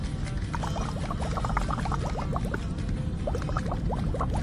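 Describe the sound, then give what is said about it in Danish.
A water pipe (hookah) being smoked on an airplane bubbles steadily, a dense stream of small gurgling pops with an irregular rhythm over a low, continuous rumble, moderately loud, with no voices. “Jeg må bede dig om at slukke den vandpipe.”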